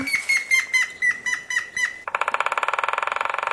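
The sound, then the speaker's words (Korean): Woodpecker drumming: a fast, steady burst of sharp knocking taps lasting over a second, preceded by a series of repeated whistled bird calls. “아우, 내가 제일 좋아하는 소리. 낙타구리 소리.”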